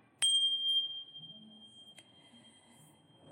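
A meditation bell is struck once to begin a meditation practice, its clear, bright tone ringing out and lingering steadily as it slowly fades, with no talking.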